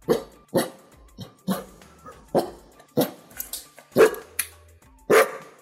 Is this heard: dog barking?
yes